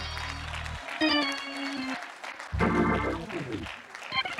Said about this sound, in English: Oh, clap your hands once again into the wonderful name of the Lord Jesus. Hallelujah.